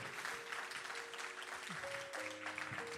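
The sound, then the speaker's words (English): Many people give the Lord a hand clap together in a dense, steady burst of applause that fills the whole clip, with faint sustained organ-like tones humming underneath. “Somebody give the Lord a hand clap if you're ready to endure”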